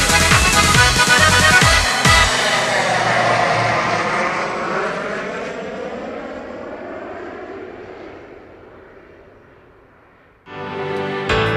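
An airplane roars past overhead, loud at first, its engine pitch sliding downward as it fades over several seconds, with brief music at the very start and end.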